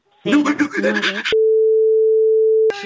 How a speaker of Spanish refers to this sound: Estamos llamando. Vamos a ver si podemos entrar en la llamada a Leticia. Buzón Movistar